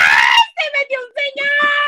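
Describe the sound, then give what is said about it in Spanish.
A voice imitates the startled scream of someone at home surprised by a man coming in: a sharp, loud high-pitched shriek at the start, followed by a few quick wavering yelps and a sustained cry, alone. “No para que cuando entres a tu casa no grite a alguien, ¡ay,”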